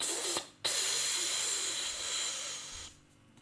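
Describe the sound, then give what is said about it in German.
A voice imitates the hiss of a joint being lit with a lighter: a steady, breathy hiss lasting about three seconds, broken by one brief pause near the start, then fading out. No one speaks. “Wirklich, der hat die Augen zugemacht und hat dann Feuerzeug an die Tüte gehalten und dann ging so.”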